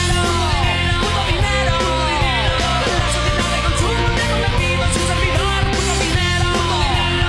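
A loud, dense 2000s rock band song plays continuously, with strained, shouted-sounding vocals over driving guitars and a steady pounding beat, full throughout.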